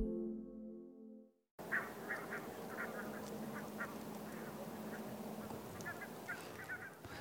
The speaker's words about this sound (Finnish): Tämä homma on oikeasti jo alkanut täällä. Lintujen ääntä kuuluu.